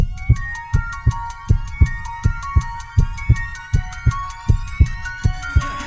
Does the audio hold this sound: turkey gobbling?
no